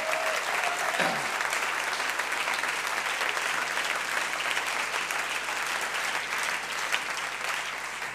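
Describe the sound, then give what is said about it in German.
An audience claps steadily for several seconds, giving applause to the Lord, a dense wash of many hands that holds level throughout and eases off only slightly toward the end, with no voices heard. “Gebt mal dem Herrn einen Applaus.”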